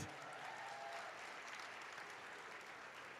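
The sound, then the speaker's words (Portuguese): A crowd in a Pentecostal church claps steadily for the Pentecostals, dense and sustained applause for a few seconds, with no one speaking over it. “Palmas para os pentecostais, gente.”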